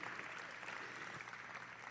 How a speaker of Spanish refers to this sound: Dele un aplauso a Dios.